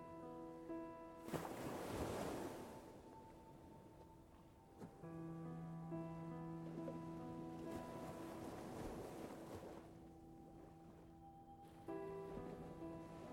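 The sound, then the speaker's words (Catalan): Ocean waves roll in and break on the shore in a few slow, hissing surges, layered under a steady, sustained musical drone of held tones. “Ves seguint les onades, ves seguint la teva respiració i penetra en el continu de la calma.”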